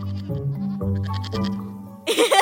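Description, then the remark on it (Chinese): A lamb bleats several times in a row, each call wavering and fairly loud, ending with a harsher, brighter cry. “你们又上当了，这里没有狼，只有小羊。咩咩咩！”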